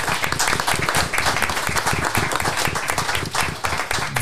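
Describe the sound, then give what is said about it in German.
A crowd applauds steadily for the people working behind the scenes, many hands clapping in a dense, sustained burst of bright, crackling noise that holds at a fairly loud, even level throughout. “Also ein Applaus für alle die Lü, den man nicht süch, aber den Hintergrund arbeitet, damit sowas möglich ist.”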